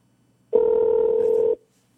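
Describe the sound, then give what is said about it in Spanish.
A single steady electronic telephone ringback tone as radio station 92.4 calls fighter Brandon Moreno, holding one low-mid pitch for about a second and then cutting off. No one speaks. “A ver si contesto.”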